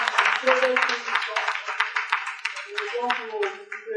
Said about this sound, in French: On va quand même applaudir.